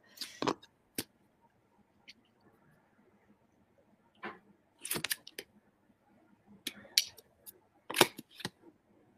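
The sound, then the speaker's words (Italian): A card is drawn from a deck, the card turning out to be number 18, Wind: crisp papery snaps and light rustling, fairly quiet, coming in irregular bursts over several seconds with no one talking. “Allora, scelgo una carta.”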